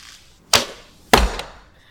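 Two arrows shot in archery strike a target in quick succession, each a sharp, solid thwack about half a second apart, fairly loud with a short ringing decay and no voices.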